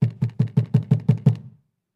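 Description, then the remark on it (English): A rapid series of eight loud, heavy knocks, imitating a bang at a door, evenly spaced and pounding, with no voices; the banging stops abruptly into silence. “All of a sudden, I got a big bang at the door.”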